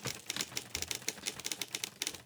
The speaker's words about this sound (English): And at the top of the podium sits a woman at the desk who is hunched over, looking like she's kind of scribbling on all of these reels of paper coming off all of these typewriters.